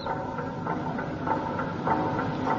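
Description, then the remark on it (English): Clocks tick steadily and mechanically, a regular series of crisp clicks about every half second over a faint ratcheting hum. The ticking is continuous, with no voices. “It will not stop because you cannot hear the clocks.”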